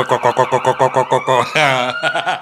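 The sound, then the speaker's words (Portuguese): An ambulance siren sounds loudly on Dufferin Street, with rapid yelping pulses that shift into a higher, sweeping wail as it goes by. “Essa sirene.”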